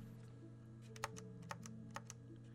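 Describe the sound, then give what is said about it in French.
Soft keys of a quiet membrane keyboard pressed a handful of times at an uneven pace, each tap quiet and muffled, over a low steady hum with no one talking. “Il fait pas de bruit. Comme je peux vous le montrer à l'écran, là.”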